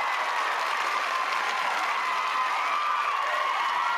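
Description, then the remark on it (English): A short burst of recorded applause, dense clapping and a little cheering from a crowd, steady and fairly loud for about four seconds, used as a point-scoring sound effect in a quiz game. “get the, the point noise.”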